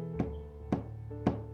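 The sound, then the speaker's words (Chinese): Three evenly spaced knocks on the wooden door of a small house at the edge of a forest, each a sharp, hollow rap, sounding over a steady low musical hum with no voices. “没看到任何人，他敲敲门，”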